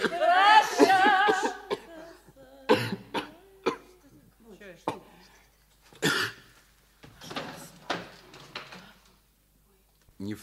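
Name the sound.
coughing and throat clearing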